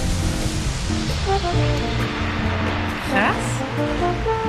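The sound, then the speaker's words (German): A slowed-down glass bottle sound: deep, drawn-out resonant tones hum over a steady rushing wash, with a brief warbling sweep rising through the middle near the end. “diesen langsamen Sound bei allen meinen Gläsern im Schrank installieren”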